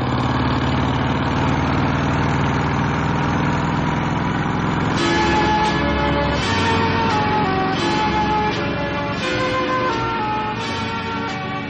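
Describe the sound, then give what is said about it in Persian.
A motorcycle engine runs steadily with a loud, low rumbling drone. About halfway through, ringing melodic tones join over it. No one speaks. “من عاشق صداشم که وقتی روش میشینم دیگه هیچ صدای دیگه ای رو نمیشنم انگار تو این دنیا نیستم”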